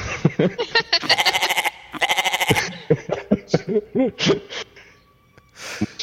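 A goat bleats several times, loud, quavering cries in quick bursts, separated by shorter wavering calls and brief pauses.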